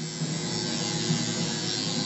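A tattoo machine buzzes steadily as a tattoo is being done, a continuous electric hum with a faint flutter and no voices, holding the same pitch and level for about two seconds.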